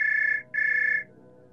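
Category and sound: signal or alarm, mobile phone ringing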